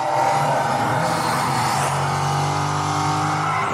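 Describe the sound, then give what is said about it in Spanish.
Racing cars on a TV demo, with speaker technology that moves the sound with the image, roar past in a steady, loud engine drone, with a high whine shifting pitch and tires squealing near the end, filling the whole stretch without any talking. “Ustedes tal vez no puedan escuchar esto en casa, pero mientras estos coches se mueven, yo escucho el sonido mover exactamente con el carro al mismo tiempo.”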